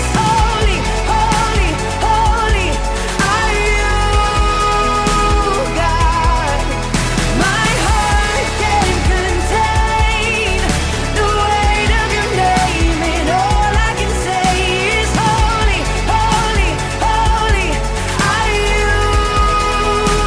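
A song plays at full volume throughout, a melodic vocal line riding over dense, steady band instrumentation with drums and sustained chords, with no talking over it.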